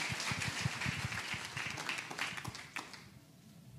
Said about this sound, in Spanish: que vamos a recibirlos con un fuerte aplauso y vamos a escuchar lo que el Señor ha hecho ahí.